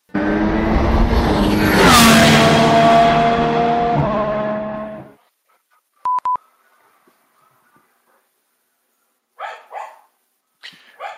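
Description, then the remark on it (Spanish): A car roars past nearby with loud music blaring, swelling and then fading away after about five seconds. Brief electronic beeps follow, then a few dog barks. “Es que justo ha pasado por aquí un coche con la música a toda leche.”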